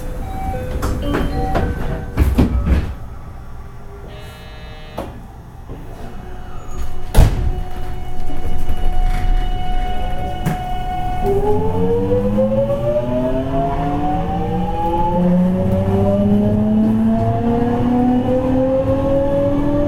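An electric JR 207 series commuter train departs on the run from Amagasaki to Sumiyoshi: scattered clunks and sharp clicks, then from about eleven seconds a loud motor whine in layered tones that climbs steadily in pitch as it accelerates.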